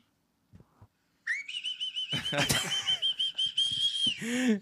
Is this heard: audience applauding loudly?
no